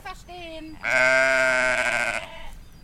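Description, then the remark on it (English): A flock of sheep and goats on a field bleat on a gloomy, rainy day: a shorter, softer call comes first, then a long, loud, wavering bleat that holds for over a second before fading. “But instead of visiting a zoo in the rainy day today, because it's currently closed, on a gloomy day like today, I went to visit a flock of sheep and goats which I noticed earlier on the field.”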